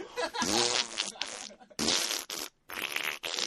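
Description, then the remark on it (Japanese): A voice on a radio show blows out a series of loud, raspberry-like mouth fart imitations, one long buzzing burst followed by a few shorter sputters with brief pauses between them. “僕はやりましたけど、中学生の時からやってる口おなら。”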